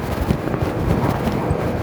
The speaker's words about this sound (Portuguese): O caminhão tá passando atrás de mim, olha. Eu tô numa rua larga, silenciosa, tranquila.